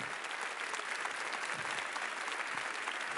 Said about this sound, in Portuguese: Pode fazer melhor para Jesus, você está dando um aplauso para ele.